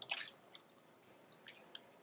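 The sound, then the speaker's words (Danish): A dab, a flatfish, splashes briefly in a shallow plastic tub, one quick wet slap followed by scattered small drips and trickles. Quiet, with no voices. “Denne her flade fisk, som plasker rundt i, i baljen, den hedder en ising.”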